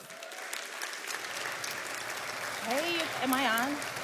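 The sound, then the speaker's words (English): A room full of people in a church claps steadily for a few seconds, a dense, sustained wash of applause, with a voice calling out over it toward the end. “So give it up for”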